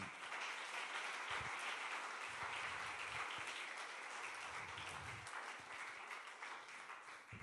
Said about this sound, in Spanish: Dele un aplauso a Dios porque es bueno.